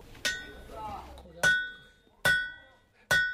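Four sharp, ringing metallic clangs of a heavy iron hammer striking heated iron on an anvil at a blacksmith's shop in Bulgwang-dong, Seoul, spaced unevenly about a second apart, each leaving a bright metallic ring, with faint low background noise between blows.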